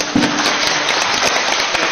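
audience applause

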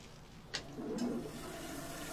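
toilet flushing

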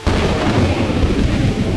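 thunder

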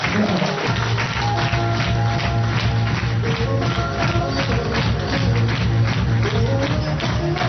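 audience applause

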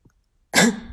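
a single cough

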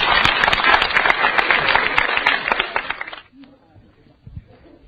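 audience applause

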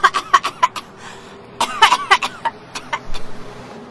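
coughing

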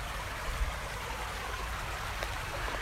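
babbling stream

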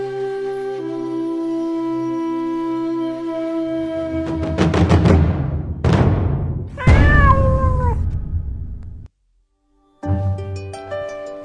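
cat meowing

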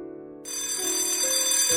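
school dismissal bell ringing

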